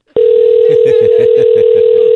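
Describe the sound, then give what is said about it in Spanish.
After a phone call is hung up, a loud, steady telephone tone starts abruptly after a faint click and holds without a break, with a faint muffled voice murmuring rhythmically underneath. “una vez más, no me cuelgue el teléfono.”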